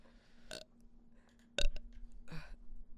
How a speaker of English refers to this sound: Burp.